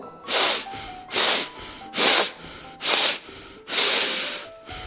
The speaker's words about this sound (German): Und wir werden eben viermal kurz ein- und ausatmen und einmal lang. Mund zulassen und einfach durch die Nase dann viermal kurz und einmal lang atmen zeig dir das mal. Also das wird so.